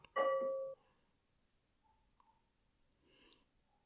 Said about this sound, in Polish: I usłyszałeś gong. Nie, żartuję. E, powiadomienie e, przyszło.